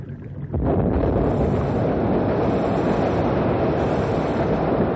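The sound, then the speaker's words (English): After a brief quiet moment, a sudden loud explosive blast, set off with a wired plunger to break up a river ice jam, erupts into a sustained, heavy roar of rushing, churning noise that continues steadily without letting up. No voices are heard. “We're all set now to blow up the jam.”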